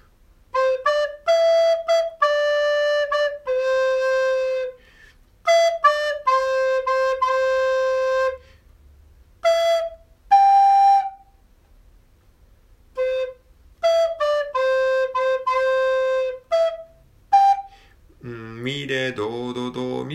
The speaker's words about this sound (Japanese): ちょっとリコーダーで吹いてみましょうか